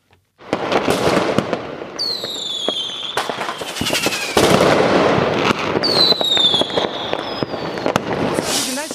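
A loud, dense fireworks display: continuous crackling bursts and sharp pops, with rising whistles streaking upward twice, sustained throughout.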